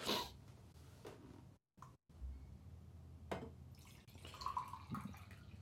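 food or drink, speaker drinking water

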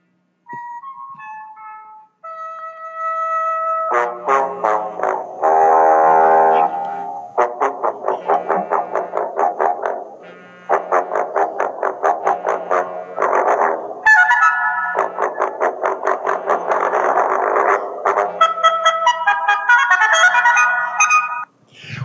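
signal or alarm, phone ringtone playing

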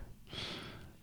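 human body sound, sneeze

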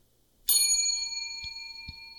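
signal or alarm, bell being struck

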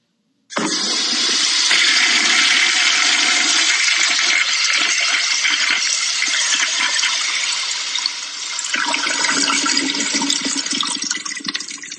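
household object, toilet flushing

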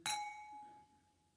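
household object, wine glasses clinking

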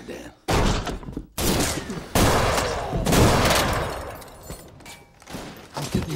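sound effect, gunfire

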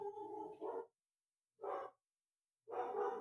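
animal, dog barking

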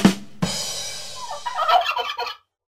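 bird, turkey gobbling

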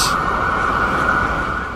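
vehicle, ambulance siren passing outside

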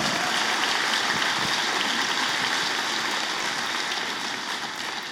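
crowd, audience applauding

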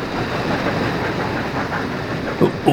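vehicle, train rolling on rails

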